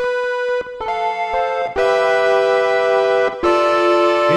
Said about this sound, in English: that buzz? That's interesting. I don't know if that's a sample.